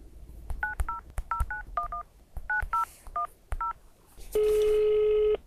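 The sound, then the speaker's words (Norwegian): A rapid string of about ten short, clear telephone keypad tones beeps out in irregular rhythm as a phone number is dialed, followed by a longer steady tone held for about a second. “Så la oss sette telefonen på lading, og så ringer vi rundt.”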